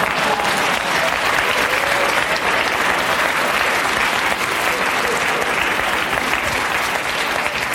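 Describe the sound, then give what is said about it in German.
An audience applauds steadily for several seconds for a birthday, a dense, even wash of many hands clapping at a constant loud level, with no voices standing out. “Und ihr dürft klatschen.”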